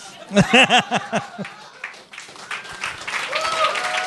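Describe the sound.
Audience applause for the sponsor PlanetHoster: a burst of loud voiced laughter at the start gives way to a steady, dense wash of clapping that keeps going to the end, with a few faint whoops mixed in.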